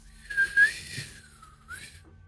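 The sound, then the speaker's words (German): A high, thin whistle like an incoming projectile wavers and slowly slides downward for over a second, then a shorter rising whistle follows, coming closer. It is clear, with no talking. “du hast ein Pfeifen in der Luft.”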